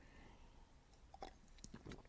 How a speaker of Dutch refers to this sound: Even een slokje water.